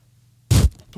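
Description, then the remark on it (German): A single loud bump as someone knocks against a bag: a muffled thud with a burst of crinkly rustle, followed by a softer brief shuffle a moment later, over quiet background hum. “Bah, da bin ich an die Tüte gekommen.”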